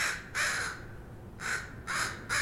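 Crows in a backyard cawing in a series of harsh, raspy calls, about four caws in quick succession, clear against a quiet outdoor background.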